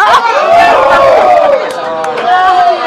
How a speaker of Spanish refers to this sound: Griten. Ahora griten los que le dieron la contraseña del celular a su vieja.